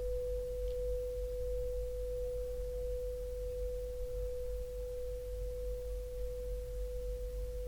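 A steady, pure ringing overtone from a singing bowl after it is struck and rubbed holds at a single mid pitch for the whole stretch, unwavering and clear over a low background hum, with no voices.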